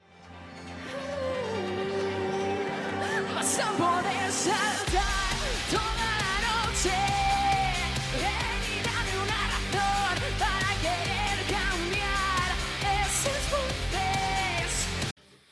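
A metal song with a female lead singer, opening on a lighter intro before heavy drums and distorted guitars crash in a few seconds later and drive on loudly to the end.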